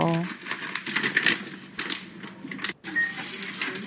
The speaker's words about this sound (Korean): 이게 타자기 소리 아닌가요? 아, 아, 어, 저거 당귀, 당귀 자른다, 당귀. 어, 어, 저거는 인삼, 인삼 자르고.